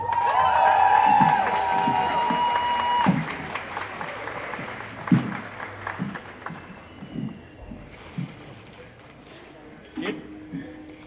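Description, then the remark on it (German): A crowd at a demonstration against right-wing extremism applauds and cheers as an activist speaker is introduced. The clapping is a dense wash with shouts over it, loudest at the start and gradually thinning out, with a few scattered claps and voices toward the end. “Großen Applaus bitte.”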